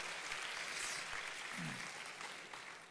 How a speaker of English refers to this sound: And uh, so let's once again, let's give the Lord a hand clap of praise for what he's done.